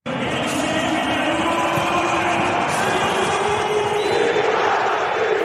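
A stadium crowd roars and cheers as Seru Girassi comes back onto the pitch as a substitute for VfB. A dense, steady wall of massed voices holds loud throughout, with no individual speech standing out.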